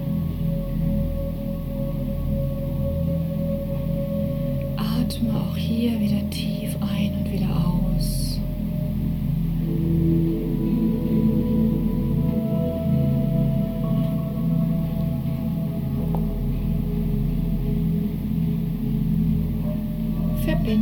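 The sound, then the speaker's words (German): A singing bowl resonates with a steady, sustained hum, its overlapping tones lingering and slowly shimmering for the whole stretch, with a few soft brushing sounds early on and no talking. “Lass den Klang und die Schwingung der Schale auf dich wirken.”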